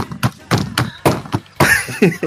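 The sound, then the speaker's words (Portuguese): A quick run of dull thumps from a taiko drum game controller being struck while playing at home, about eight hits in an uneven rhythm, each with a short broad knock. “Não, não é, é barulho de tambor, né?”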